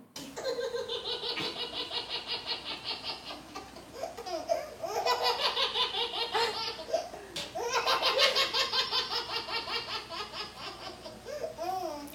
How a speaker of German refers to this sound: Und, ähm, oh, das ist äh, jetzt äh, Babyalarm. Babyalarm. Müssen wir mal kurz pausieren?